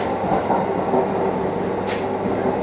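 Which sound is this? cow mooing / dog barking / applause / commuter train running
commuter train running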